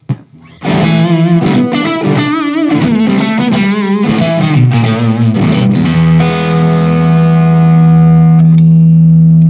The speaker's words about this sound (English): Uh, more treble. plenty of distortion if you want.